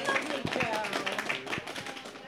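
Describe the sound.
A short burst of audience applause for a participant dressed as Miss Fezziwig: many hands clapping in a dense, steady patter with a few sharper claps standing out, and voices mixed in underneath.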